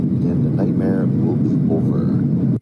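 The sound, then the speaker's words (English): A steady, loud low-frequency roar inside the cabin of a United Airlines Boeing 757 jet making an emergency landing in Colorado with a damaged wing fills the whole stretch, with indistinct voices murmuring faintly underneath the engine and airflow rumble. “Tonight, tense moments on board this United Airlines flight, a Boeing 757 making an emergency landing.”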